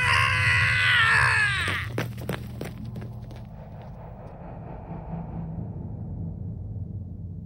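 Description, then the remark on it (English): A person utters a loud, harsh, bestial shriek in a hallway while slamming a door, ringing out for nearly two seconds, followed by a few sharp thuds and a low, lingering rumble. “I ran off before he could finish, slamming the door behind me and uttering a bestial shriek in the hallway outside.”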